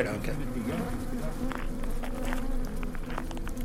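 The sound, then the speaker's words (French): A steady, low droning hum of many honeybees around a hive in a national park fills the whole stretch, dense and continuous, with faint murmured voices and small clicks and taps scattered through it. “Donc on peut nous dire dans le parc national, nous avons environ 2 millions d'abeilles, rien que d'abeilles”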